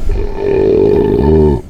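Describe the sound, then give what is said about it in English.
A loud, drawn-out belch rumbles for over a second, deep and throaty with a rough, croaking texture that shifts slightly in pitch near the end before cutting off. “Number two, was that a belch?”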